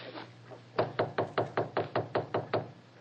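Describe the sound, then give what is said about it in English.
A rapid series of about ten sharp knocks on the wooden door of a study, evenly spaced and fairly loud, rapping steadily for nearly two seconds against a faint low hum. “Here's the door of the study. I'll knock.”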